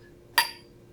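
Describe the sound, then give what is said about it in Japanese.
Two drinking glasses, one of rum infused with Lishan tea and one of that rum mixed with tonic, clink together once in a toast, a bright chime that rings briefly and fades out over a quiet background with no voices. “はいはい、はい、飲んでみましょう。はいはい。いただきます。はい。乾杯。乾杯。”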